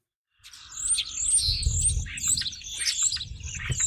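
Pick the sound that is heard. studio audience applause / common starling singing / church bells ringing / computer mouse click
common starling singing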